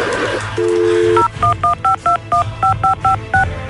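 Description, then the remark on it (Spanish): A brief dial tone gives way to a quick run of about ten touch-tone beeps as a phone number is punched in, each tone short, clear and evenly spaced, with no one talking. “Oye, pichonzuelo tranquilito porque estamos marcando.”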